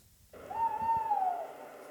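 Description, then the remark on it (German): A single hollow, drawn-out hoot from a male tawny owl, holding a steady low pitch before sliding down slightly at the end. It is clear, with no voices. “Waldkauz und der Geruch von Regen”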